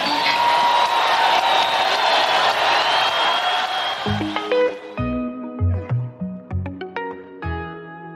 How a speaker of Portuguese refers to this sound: Ele fala, cara, é, eu tô aqui pela música, eu não tô aqui porque a galera tá vaiando ele jogando água porque quer rock.